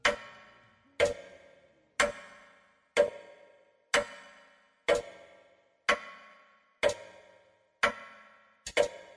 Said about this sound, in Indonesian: Coba dengarkan suara getaran bandul jam dinding berikut.